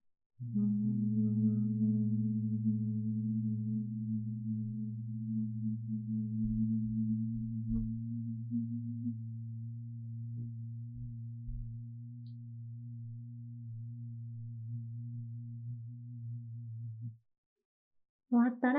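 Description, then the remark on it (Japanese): In a breathing exercise, with mouth closed, eyes closed and ears lightly plugged with the index fingers, a long, steady humming exhale slowly through the nose with the throat vibrating, a low continuous drone at an even pitch, holding for about seventeen seconds before stopping abruptly. “口を閉じた状態で鼻から息を吸って、喉の奥震わせるように音を立てながら、ゆっくり鼻から息を吐き出します。”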